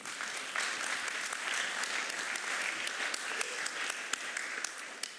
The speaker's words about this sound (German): und immer einen riesen Applaus dafür.